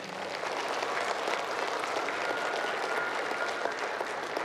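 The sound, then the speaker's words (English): An audience claps steadily for several seconds for the child readers, a dense, even wash of many hands with no voices heard, holding a constant loudness throughout. “Can we give our readers, our kids, a round of applause?”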